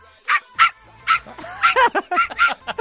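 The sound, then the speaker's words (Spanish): A person imitates a small dog, a poodle, barking, giving a rapid series of short, high-pitched yapping barks in uneven bursts, with no other sounds. “¿Puedo, hacer el perro y así elegimos?”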